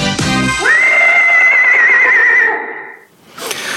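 A horse lets out one loud whinny in a song that starts with a sharp burst, holds a long quavering note, then trails off into a breathy fade before a brief noisy snort.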